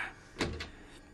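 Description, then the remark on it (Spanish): A heavy door at the top of a stairway, its loosened hinges letting it rest on the floor, is shoved open, giving a quick scraping thud followed by a second shorter scrape, moderately loud against a quiet background. “Por último, sin embargo, encontré una puerta en lo alto de una escalera que, aunque parecía cerrada, cedió un poco al empujarla.”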